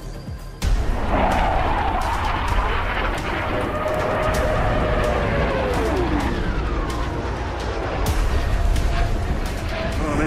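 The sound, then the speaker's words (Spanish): Hawker Hunter jet aircraft attack the Presidential Palace, La Moneda, in Santiago with rockets and bombs: a loud, continuous roar bursts in and holds, with whining engine tones sweeping downward and sharp blasts cracking through the din. “los pocket Hunter lanzando sus cohetes hacia el Palacio Presidencial.”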